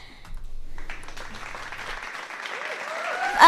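Steady clapping from a group lasts a few seconds, a dense patter of hands with some high whoops rising near the end and a louder burst right at the finish.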